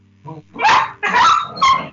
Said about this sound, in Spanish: Ahora, ahora, qué mamada, ¿quién se está matando, güey? paran a los perros. No nada, nada, ¿cómo se pelean? que no se peleen.